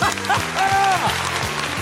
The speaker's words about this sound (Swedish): Jag tror, bara för att vi ska få lite applåd och jubel här nu i slutet, så tror jag fan med att den här är sann.